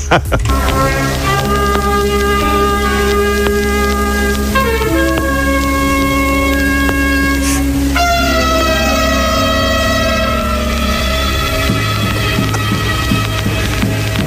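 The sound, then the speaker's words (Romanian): An amateur orchestra plays a continuous passage of sustained, overlapping notes, with the oboe and other winds sounding noticeably out of tune. The playing is loud and steady, with no voices. “am găsit o înregistrare a aceleiași uh, secvențe um, mai veche, dintr-o orchestră de amatori”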